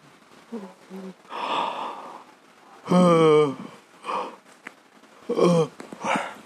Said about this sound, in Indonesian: nah ngomong ngomong apa aja gue nguap nah gimana kalau lo nguap dalam waktu 1 sampai 5 detik setelah gua nguap tadi aduh nguap lagi ngantuk